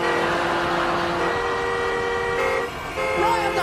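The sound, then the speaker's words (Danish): A chorus of car horns honks continuously at a drive-in show, several steady tones overlapping at once, with a brief dip before more horns blare again, including a sliding, wavering one near the end. “sådan her lyder det altså, hvis øh, Mikke Øndal var, øh, eller når han kommer til at holde de her drive-in øh, shows”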